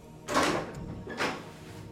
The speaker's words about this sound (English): My character's in the study when the door opens.